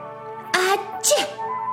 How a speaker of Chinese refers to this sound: 大个儿熊的喷嚏。一天，大个儿熊打了一个大喷嚏。